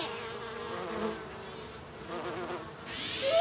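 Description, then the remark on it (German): A bee buzzes steadily in flight, its drone rising and falling slightly as it moves, continuous throughout with no voices. “wieder mal so ein richtig flottes Insekt. Richtig flott zum Zieh herum, zwischen Blüten, Bienen, Stock.”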